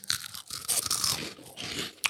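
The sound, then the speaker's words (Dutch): Crunching on cricket snacks: a steady run of dry, brittle crackles and chewing sounds with no one talking, ending in a sharper crunch. “Maar ze zijn fucking lekker, jongen. lekker, toch? Proef. Proef nou.”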